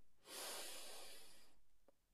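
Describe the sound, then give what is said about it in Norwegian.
A deep inhalation during a breathing exercise, lasting over a second, a steady airy rush of breath drawn in, followed by a brief soft sound, with no talking. “Pust godt inn en gang til.”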